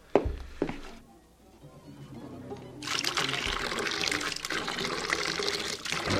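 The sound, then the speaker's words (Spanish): A few knocks and clunks, then water starts pouring steadily into a container, fetched to clean stains off a staircase; a continuous rushing splash that keeps going for the last few seconds. “Ahora voy a traer más agua para limpiar las manchas de la escalera.”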